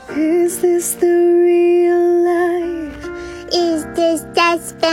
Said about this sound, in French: C'est une chanteuse… qui interprète … en prenant de temps en temps la voix d'un bébé